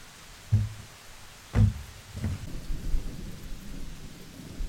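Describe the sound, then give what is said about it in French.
Steady rain hisses outdoors while several deep, muffled thumps of thunder roll in close together near the start, leaving a continuous low rumble under the downpour. “Il pleut dehors maintenant, mais va courir.”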